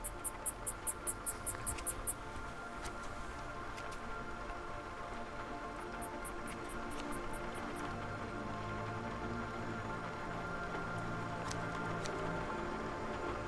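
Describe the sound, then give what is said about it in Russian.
Cicadas chirp in quick, rhythmic bursts over a steady, dense hiss, mingled with the soft, repeated snipping of scissors cutting hair. No one speaks. “Стрекотание цикад сливается со звуком ножниц”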